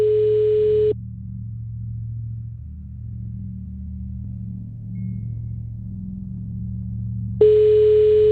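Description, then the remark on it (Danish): Two steady ringback tones of an outgoing phone call, each about a second long, separated by a long pause filled with a low, muffled hum. “Så i stedet forsøger jeg noget tid senere at ringe til Martha”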